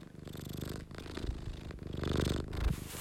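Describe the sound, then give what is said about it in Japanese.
A cat named Chii-chan purrs loudly, a steady rumbling vibration pulsing in a continuous rhythm, with occasional soft rustling and thumps as it shifts around. “皆様猫のハゲゴロ音は人間の自律神経を整えるとも言われております是非お楽しみください”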